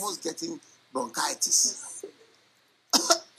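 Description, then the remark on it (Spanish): A person imitates a goat coughing: a run of short, raspy, hacking bursts, then a brief silence before one more harsh cough-like burst. “Un día yo estuve en una casa y mira, había una cabra que estuvo tos.”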